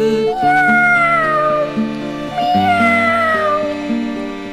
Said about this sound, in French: Écoutons maintenant les miaulements d'un petit chat mignon qui se languit de sa maman.